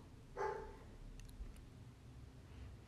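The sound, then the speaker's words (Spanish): A single short dog bark rings out near the start, moderately loud, followed by a few faint high chirps and a steady low background hum with no talking. “este perro comienza a ladrar lo que me faltaba”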